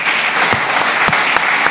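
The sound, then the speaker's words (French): An audience applauds the mayor, Nathalie Appéré, many overlapping claps blending into a dense, even crackle with a few sharper individual claps standing out. No one speaks over it. “Et franchement, ça mérite encore des applaudissements.”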